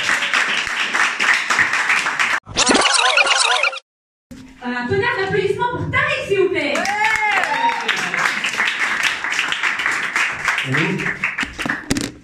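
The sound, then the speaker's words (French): An audience at a stand-up comedy show claps steadily with dense, crackling applause, broken by a brief silence, then keeps clapping while rising whoops and shouted cheers ring out over the crowd noise, making noise for the next comedian. “je vais vous demander de faire un maximum de bruit pour le prochain.”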